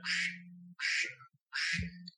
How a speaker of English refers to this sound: Oh no, the duck alarm. The duck alarm.